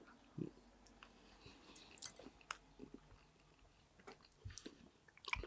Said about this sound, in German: Jetzt erstmal schön ins Mikro kauen und schnaufen während mhm. des Essens.